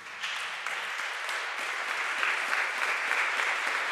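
An audience applauds steadily, a dense wash of many hands clapping together that swells slightly and holds at an even, sustained level for several seconds, with no voices standing out.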